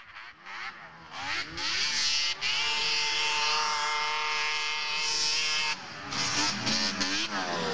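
A loud Polaris snowmobile engine revs up, holds a high, steady whining roar for several seconds, then drops and blips up and down again near the end. No voices.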